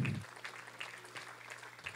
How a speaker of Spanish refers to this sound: Alábele que Él vive, déle un aplauso al Señor.